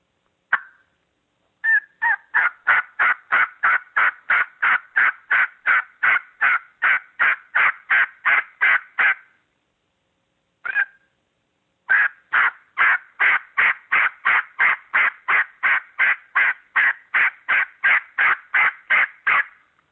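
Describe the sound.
Two long runs of rapid, evenly spaced turkey yelps made on a hunting call while blind calling during turkey hunting, loud, each note a raspy squawk, broken by a short pause and a lone note before resuming.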